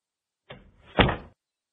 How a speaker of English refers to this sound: Minerva McGonagall gently closed the door of her office